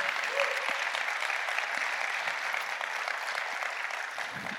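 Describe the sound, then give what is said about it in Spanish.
An audience applauds the Lord for the gift of salvation, steadily for several seconds, a dense, even wash of many hands clapping at a constant loud level with no pauses. “¿Cuánto le dan un fuerte aplauso al Señor por el regalo de la salvación?”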